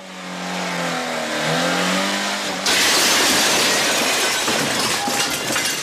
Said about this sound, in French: Depardieu euh, doit défoncer, euh, doit alors défoncer un bar au volant de son camion